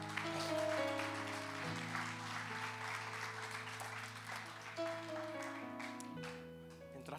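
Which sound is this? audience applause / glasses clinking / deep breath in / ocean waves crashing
audience applause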